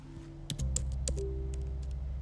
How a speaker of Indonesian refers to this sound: ASMR keyboard